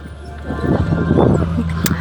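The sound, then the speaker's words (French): Wind-driven castanets clack in a loose, irregular patter over a steady low hum, with one sharper, brighter click standing out near the end. “Donc en fonction de la force du vent, vous avez donc des castagnettes qui, se mettent en action.”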